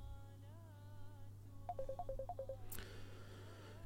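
An electronic phone ringtone for an incoming call to a live broadcast plays a quick run of bright, alternating-pitch beeps after some wavering tones, over a steady low hum, ending with a sharp click. No one speaks.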